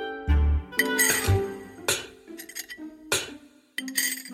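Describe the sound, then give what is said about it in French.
Bowls clink and ring as porridge is poured into three bowls: about six or seven bright, separate knocks at an irregular pace, each one leaving a short ringing tone, with no voices. “Ce matin-là, maman ours prépara une bonne bouillie qu'elle versa dans les trois bols.”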